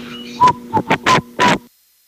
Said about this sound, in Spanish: Hoy que es día del chiflido, este chiflido va para Martín Orozco.